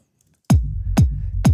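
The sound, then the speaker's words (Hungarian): After a brief silence, a short electronic sample starts looping: a punchy, booming bass hit with a downward pitch sweep repeats about every half second, loud, with no voices. “És akkor mondjuk ezt belúpolom.”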